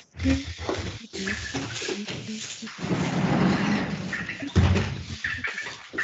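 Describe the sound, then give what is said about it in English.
A sliding door is closed, rumbling along its track for a couple of seconds with a steady rolling noise, with laughter and voices before and after it. “Let me let me close the sliding door.”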